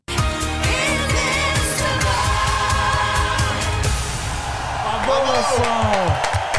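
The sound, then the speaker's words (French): Recorded audience applause, a dense, steady wash of clapping mixed with crowd cheering, with high whoops and shouts rising over it toward the end. “J'ai laissé les applaudissements enregistrés parce que j'avais peur que vous m'applaudissiez pas.”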